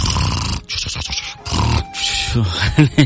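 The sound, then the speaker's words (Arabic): A voice imitates loud snoring: rough, rattling snorts and grunts in a few uneven bursts, ending with short nasal snorts, with no words spoken. “لا تخلي صوت التشخير”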